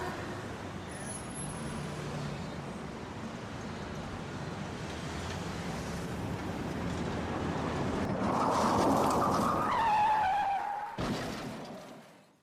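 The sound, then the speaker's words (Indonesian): Steady roadway rumble builds until an angkot minibus's brakes let out a loud, wavering squeal for a couple of seconds as it grazes a woman on the road, then the sound cuts off abruptly. “Seketika jalanan menjadi macet dan perhatian orang tertuju ke ibu-ibu yang terserempet oleh angkot.”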